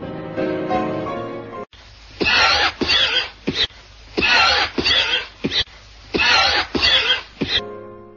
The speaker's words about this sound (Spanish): La mayoría de los fumadores saben bien lo que son esos accesos de tos que atacan al despertar por las mañanas.